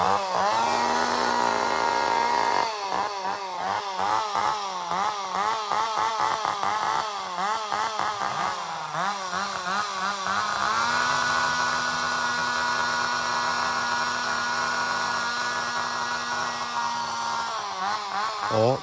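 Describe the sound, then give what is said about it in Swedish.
Two-stroke chainsaws, one at each end of the track, run loudly and without pause for nearly twenty seconds, revving against each other like a duet, the buzzing engine whine rising and dipping repeatedly as the throttle is revved up and eased off. “där fick vi verkligen höra en rejäl skönsång av den beryktade motorsågen.”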